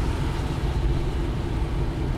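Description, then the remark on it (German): A steady low engine rumble fills the space, like riding inside a moving car, with constant road drone and no voices. “Fahr zu schnell. Ja, musst du ein bisschen bremsen.”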